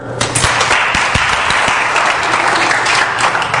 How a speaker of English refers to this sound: Have you ever been mad at how God operated in your life? A round of applause.